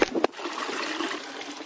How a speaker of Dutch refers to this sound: Uy! Ja, ik hoor water.